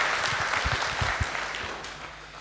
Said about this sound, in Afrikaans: Geef hom 'n lekker hande klap.